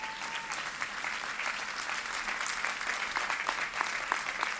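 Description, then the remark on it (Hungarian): A crowd applauds the technicians, many hands clapping in a dense, continuous patter with no voices on top, holding an even level throughout. “Tapsoljuk meg, mert a technikusok sokat dolgoznak ám.”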